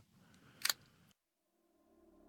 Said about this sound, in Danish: Han går fløjten over til fryserummet, men noget afbryder hans fløjten en svag lyd af noget træ, som knækker.